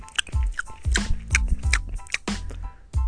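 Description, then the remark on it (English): A voice imitates open-mouthed chewing with a run of wet, clicky smacks and lip pops, about eight irregular bursts over three seconds, fairly loud with no talking. “Let's start with what grinds my gears is when people chew with their mouth open.”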